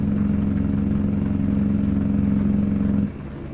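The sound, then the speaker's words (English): A semi truck's engine brake, used to stop quickly without burning the brakes, roars in a loud, steady, throaty drone for about three seconds, then cuts off abruptly, leaving a quieter engine rumble underneath. “If it's not emergency stopping, that's a way to stop. That way we don't burn the brakes.”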